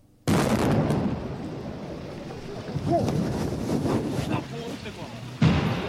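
A sudden loud burst of broad, roaring noise that stays as a rough, rumbling wash for several seconds, with a second abrupt blast near the end: the violent detonation of the 1975 bombing of the West German embassy in Stockholm.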